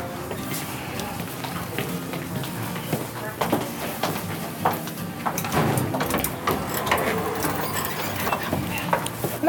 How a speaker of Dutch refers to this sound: Kijk uit hoor, de deuren komen naar je, oh. naar je toe. Ik ga hier aan de ketting trekken.